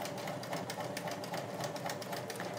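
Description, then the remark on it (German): A sewing machine sews an elastic stitch, running steadily, its needle thumping in a rapid, even rhythm with bright mechanical clatter throughout, no voices over it. “Der ist auch schön elastisch. das ähm, freut mich. Ja. Dauert ein bisschen länger, den zu nähen”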